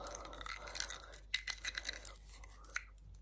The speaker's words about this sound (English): Did you like that biting sound? This one, the, the, the, one that I'm doing now.